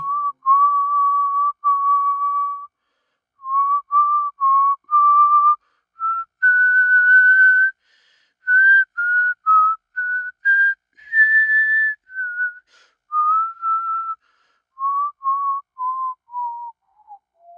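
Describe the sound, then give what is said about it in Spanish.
A lone human whistle carries a slow, eerie melody of sustained and wavering notes, rising midway and then drifting downward toward the end, clear with no talking. “recorre los bosques montado a caballo, en busca de su siguiente víctima, mientras silba una melodía de lo más espeluznante.”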